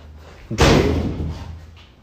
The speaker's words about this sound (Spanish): Perdón, se cerró una puerta ahí.